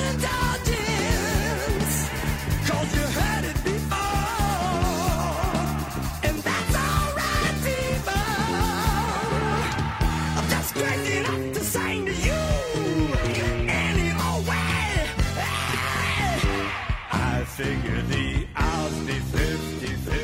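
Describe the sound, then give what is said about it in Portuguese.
A loud, dense rock song plays throughout, with strained, exaggerated shouted vocals riding over driving guitars and drums at a steady, full volume. “É, o vocal, o vocal é complicado. É bem é. também outra coisa muito gritada, muito exagerada.”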